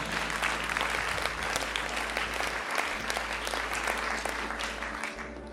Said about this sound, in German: Nochmal ein Applaus